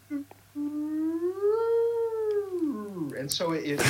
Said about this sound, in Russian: Например, если температура поднимается быстро, а потом медленно опускается, можно услышать это в звуковом варианте с помощью звукового тона, быстро поднимающегося и медленно опускающегося.